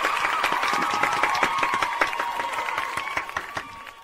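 Audience applause welcoming a guest onto a show holds at a steady level for about four seconds, a dense wash of overlapping claps with some sharper individual claps popping out, thinning slightly toward the end.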